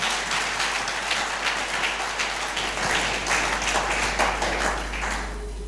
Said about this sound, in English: are you blessed today yes yes are you blessed today yes give the lord a clap